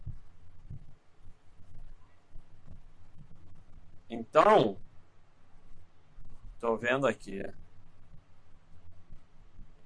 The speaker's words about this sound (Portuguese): É o ventilador, pessoal. Eu não vou desligar, me recuso. Tá muito calor.